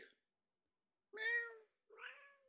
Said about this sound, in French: miaou!